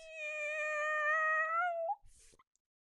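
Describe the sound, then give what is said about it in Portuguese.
A person does a single long, high-pitched cat meow, held steadily for nearly two seconds and lifting at the end, followed by a soft breathy rustle. “Só tenho a dizer às pessoas que o meu marido não é um camelo, tá bem? Ele é um gatinho.”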